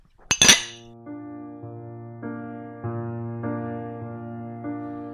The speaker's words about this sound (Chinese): 其实我们可以干杯的， 我们来我们来看能不能把这声音给录下来啊。 可以的。